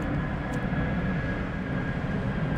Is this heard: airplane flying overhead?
yes